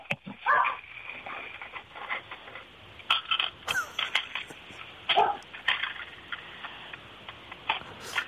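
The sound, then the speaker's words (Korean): Coins, about 70,000 won worth, clink and tap in a steady, irregular stream as they are counted one by one into a phone, while a dog barks a few times in the background, all sounding thin and muffled as if heard over a phone line. “동전을 한 7만 원이 아니고 두, 뭐 개소리까지 섞이니까 예.”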